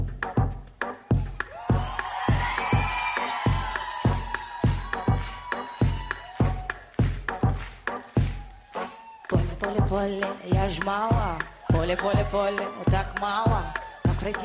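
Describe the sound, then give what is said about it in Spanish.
A pop song, Russia's new Eurovision entry, plays loud, driven by a steady, punchy beat under a singing voice with melodic vocal lines, with the arrangement growing busier partway through. “Y tenemos una nueva apuesta. Se llama … y esta es ….”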